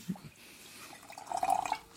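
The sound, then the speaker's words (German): Water pours briefly into a glass, starting with a small splash and then a short gurgling trickle. It is fairly quiet, with no voices. “Schluck Wasser. Immer schön Wasser trinken, sonst geht's einem nicht gut hinterher.”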